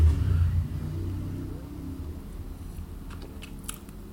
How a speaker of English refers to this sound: little revving of a fucking Harley for you there as a cheers as well. Like, do I live in Sturgis? No, but it feels like it some days. Anytime I try to record, there's always fucking choppers going by.